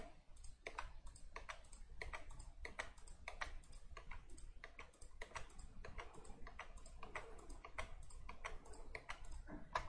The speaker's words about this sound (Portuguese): Ó, pessoal, da vantagem de ter um computador com 16 GB é isso, ó, você dá Ctrl clique e vai que é uma beleza, abrindo aba sem parar.